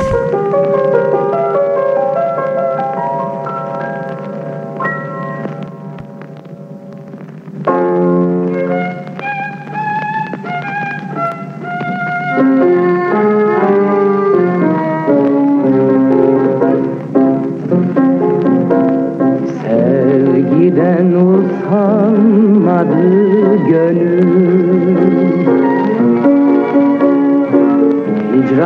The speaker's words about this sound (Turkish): Ee, şimdi biraz nefes almak için onun genç sesinden daha öncelerden 50'lerden bir Türkçe tango dinleyeceğiz.